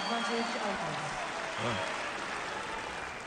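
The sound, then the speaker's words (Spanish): A tennis crowd applauds steadily to cheer on Alcaraz during a match, a dense wash of clapping that fills the whole stretch, with faint voices murmuring underneath. “Intenta la gente aplaudir y llevar en volandas a Alcaraz para.”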